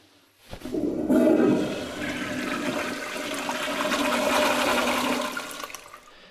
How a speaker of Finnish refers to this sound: Se oli iso huuhtelu. Kyllä.